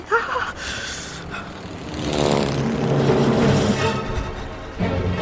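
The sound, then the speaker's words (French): A small propeller plane's engine drones steadily as it flies among steep mountain peaks in freezing cold, its pitch swelling and rising midway as if climbing or banking, then settling back to a steady buzz. No voices. “Au milieu des sommets escarpés, elle pilote dans un froid glacial.”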